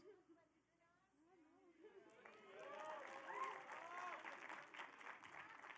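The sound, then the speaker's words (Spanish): An audience breaks into applause, many hands clapping in a dense, steady wash that swells and holds loud, starting over a man's voice speaking before the clapping takes over. “Dale un aplauso, ya.”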